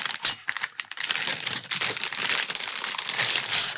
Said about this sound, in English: There's a plastic bag, it's got a little bit of bubble wrap in it. Something in there for you, you see?